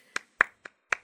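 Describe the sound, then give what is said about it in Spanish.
Four sharp, separate hand claps at an uneven, unhurried pace, each a crisp slap with a short tail, with no talking. “Yo quiero ser el público que aplaude.”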